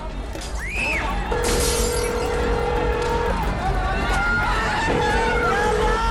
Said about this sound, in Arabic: الو معلم بتيجي بتلم اخوك من الشارع عم بكسر المحلات احنا ساكتين عشانك